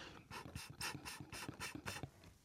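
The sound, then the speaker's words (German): Sucking air pulled through a mouth-operated ant aspirator, a device used to suck up ants, heard as a quick series of about seven hissing, airy draws in a steady rhythm, with no talking. “Das ist das Geräusch, mit dem die dann angesaugt werden.”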